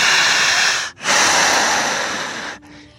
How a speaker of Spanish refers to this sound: Escúchese y siéntase. Sienta su respiración